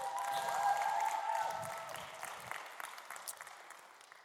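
An audience claps steadily, a dense wash of many hands that starts full and gradually thins and softens over a few seconds, with no voices speaking.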